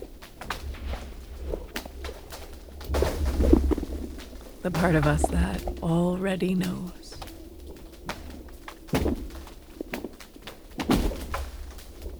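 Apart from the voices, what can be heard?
owl hooting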